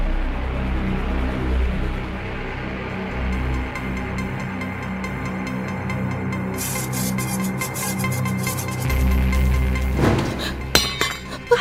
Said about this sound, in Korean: 칼날이 부엌 시멘트 바닥으로 떨어지는 소리가 아, 가면서? 집안 전체에 울려 퍼진 거예요.